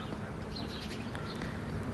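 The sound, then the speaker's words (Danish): Many birds chirp and twitter faintly in the background over a steady, noisy outdoor ambience, with short high calls scattered through the two seconds and no one speaking. “Du godstår mig en masse fugle, der er i baggrunden”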